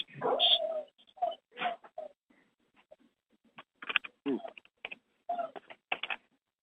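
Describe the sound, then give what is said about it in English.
A dog whimpers and yips in short, plaintive bursts, with a louder whine at the start followed by a series of softer whimpers and brief pauses. “Uh, poor dog. Whose dog is that?”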